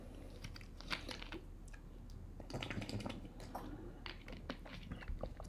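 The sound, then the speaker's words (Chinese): Someone quietly drinks water while recording a talk, with soft sips and several swallows making faint clicky, wet mouth sounds spread over a few seconds, and no talking. “抱歉啊，我没有想要太多剪辑，所以连喝水的声音都会录下去。”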